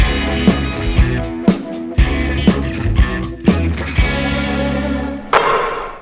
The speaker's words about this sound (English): So to bring it back in, this is the point in the in the podcast where Josh puts that little transition sound, like whoosh, whatever that noise is that signifies that we're switching topics.